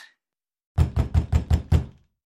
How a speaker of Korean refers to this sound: 이때 다급하게 문을 두드리는 소리에 홈즈의 질문이 중단되었다.